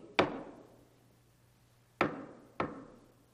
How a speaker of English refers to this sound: Jesus is knocking.